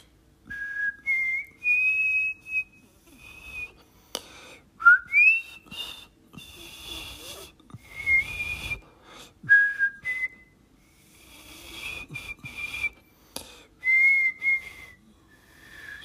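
A man whistles his favourite song, a cheerful, bouncy melody, while prancing merrily through a room, the bright tones rising and falling in short phrases with brief pauses, fairly loud, with occasional clicks and shuffling noises between notes.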